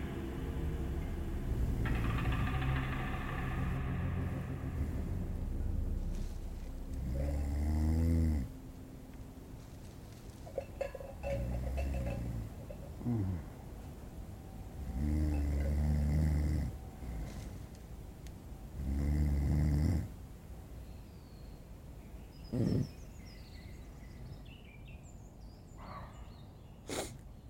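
Someone asleep snores in deep, rattling bursts, each one a few seconds apart in a slow steady rhythm, fairly loud, with quiet pauses of breathing in between.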